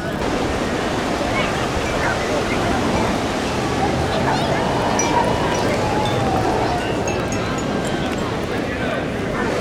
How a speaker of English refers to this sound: Now that's what I call a dog-friendly beach. Not the best for surfing, but there's actually some like rapid fire beach break barrels going on. Oh, here comes the surge. Here comes the surge.